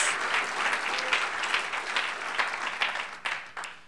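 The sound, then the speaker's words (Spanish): A church audience breaks into sustained applause for the Lord, many hands clapping in a dense, steady wash of sharp claps at even loudness for several seconds, with no voices standing out. “Démosle un buen aplauso al Señor, gloria a Dios.”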